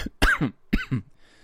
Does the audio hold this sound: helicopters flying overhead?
no